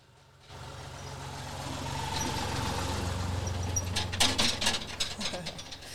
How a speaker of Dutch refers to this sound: Nou, dat we op een, eh, een, een paardenomgeving zitten, dat gaan we nou horen, want we horen een tractor langskomen, komen. dat hoort erbij.